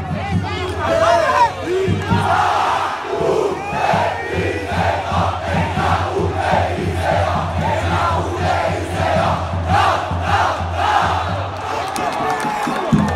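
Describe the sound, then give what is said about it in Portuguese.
A large football crowd chants in steady rhythmic unison at the Estádio dos Aflitos after a match ending Náutico 3, Confiança 1, many voices rising and falling together in loud repeated phrases, with a constant low rumble underneath throughout. “Termina aqui no estádio dos aflitos, Náutico 3, Confiança 1.”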